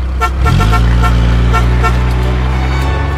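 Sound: car driving off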